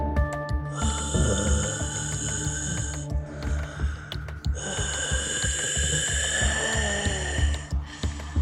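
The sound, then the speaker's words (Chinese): A man's heavy, labored breathing in slow, drawn-out cycles, about two long rasping breaths, set over a steady low throbbing hum with no talking. “他的脸扭曲成一个可怕的形状，他开始沉重的呼吸。”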